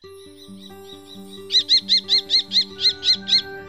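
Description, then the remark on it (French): A falcon gives a loud, shrill call of about nine sharp notes in quick, even succession, preceded by faint chirping and accompanied by soft sustained background tones. “Cette interdiction étendue est un espoir pour un retour de la biodiversité et d'un nouvel équilibre entre les espèces, des insectes, des moineaux et en bout de chaîne alimentaire, des faucons.”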